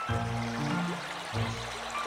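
A steady, loud rush of flooding river water roars throughout, with low humming tones sounding beneath it that cut out briefly and return near the end.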